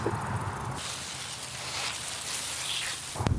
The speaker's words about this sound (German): Jetzt gucken wir mal, ob das Wasser hier raussprudelt oder ob das ein anderer Schlauch ist.